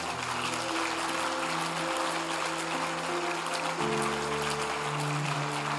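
An audience applauds with steady, dense clapping that lasts the whole clip at an even level, while sustained low musical tones hold and shift underneath.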